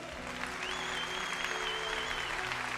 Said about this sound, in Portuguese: Pode aplaudir aquele que é santo.